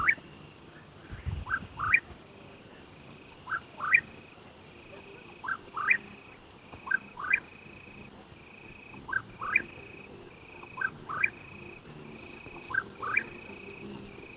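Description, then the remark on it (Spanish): A cucurrí bird sings at dusk, repeating short rising double notes roughly once a second, clear, over a steady background of crickets chirring far in the background. “es un cucurrí y es un pájaro que solo canta de noche.”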